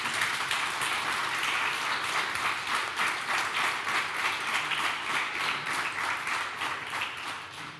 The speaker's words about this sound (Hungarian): Egyébként a jelöltetnek mondanám megnyugtatásképpen, hogy a taps idő nem megy le a vita keret idejéből, úgyhogy nem kell félni tőle.